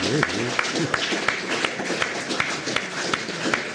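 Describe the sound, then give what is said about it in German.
A steady run of about ten sharp hand claps, evenly spaced roughly three per second, cutting through a constant hiss of background noise with some faint murmuring underneath. “Jetzt erkläre doch, warum du geklatscht hast.”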